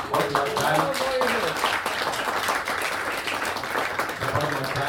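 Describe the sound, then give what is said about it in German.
Steady applause fills the whole stretch, a dense wash of many hands clapping at an even loudness, with voices calling out and talking underneath at times. “Ja, definitiv noch einen dicken Applaus, oder?”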